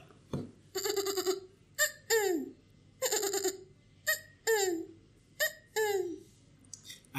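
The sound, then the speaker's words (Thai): A person's voice imitates a gecko call, repeating loud, nasal two-part croaks in an uneven rhythm, with brief pauses between each pair and no other talking. “ครับผมเหมือนตุ๊กแกแบบจะรีบชาร์จอ่ะครับ”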